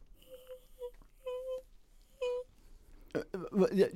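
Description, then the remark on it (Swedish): A person imitates a dog whistle with their voice in three short, thin, wheezy bursts. Someone starts talking right after. “En hundvissla.”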